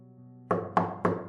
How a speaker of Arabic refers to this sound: الدقات على الباب بقت أقوى